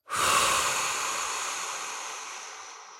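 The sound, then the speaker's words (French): A single long, forceful breath blown out through the mouth while both fists are thrown forward toward a fixed target, starting abruptly and hissing steadily for about three seconds before slowly fading, with no talking. “Lancez vos poings vers cette cible en soufflant fortement par la bouche.”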